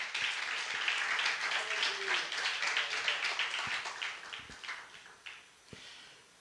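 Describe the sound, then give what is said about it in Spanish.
A crowd of people applauds together for the Lord in the morning, a dense wash of many hands clapping that stays steady before thinning out into a few scattered last claps near the end. “Vamos a brindar un aplauso bien fuerte al Señor en esta mañana.”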